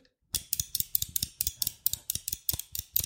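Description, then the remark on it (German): Rapid clicking of a Mad Cats arcade stick's Japanese-style joystick with a square gate, about a dozen sharp plastic clacks in a fairly steady rhythm, roughly four per second, with no talking over them, while playing Street Fighter on PlayStation. “ich habe hier so einen Arcade-Stick ähm, von, von Mad Cats ähm, und der hatte einen Joystick dabei mit einem quadratischen Gate.”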